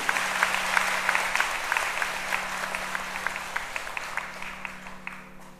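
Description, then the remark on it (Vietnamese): Steady audience applause lasting several seconds, a dense wash of many hands clapping with a few sharper individual claps standing out, fairly even in loudness and tapering slightly near the end. The applause honours 1,200 new Buddhists at a Vesak 2022 celebration of the Vietnamese Buddhist community. “1.200 Phật tử mới chính thức là mà thành viên của cộng đồng Phật giáo Việt Nam và thành viên của cộng đồng Phật giáo toàn cầu trong ngày Vesak năm 2022 nhằm Phật đản thứ một hai ngàn sáu trăm bốn sáu năm hãy cho một tràng vỗ tay thật lớn để tán dương”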